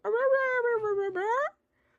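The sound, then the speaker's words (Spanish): A person imitates the dragon Vagar whimpering with one long, whiny vocal tone that sags in pitch, then slides back up in a rising whine before cutting off. “Que ella dijo de que Vagar, y Vagar estaba como.”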